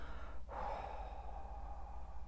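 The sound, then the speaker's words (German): A brief pause, then one slow, drawn-out calming exhale through the mouth during a breathing exercise, fairly soft, carrying a faint, gentle voiced tone for about two seconds. “Aber ich finde es schöner, wenn man mit dem Mund ausatmet, weil dann kann man auch so einen beruhigenden Ton machen”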